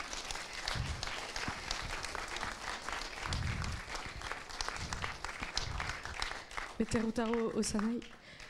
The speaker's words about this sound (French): Merci. vous pouvez les applaudir encore. Katsuya Tomita.